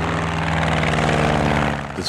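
A propeller airplane drones steadily overhead, its engine a loud, continuous buzzing hum with a throbbing rhythm, sustained for about two seconds with no voices.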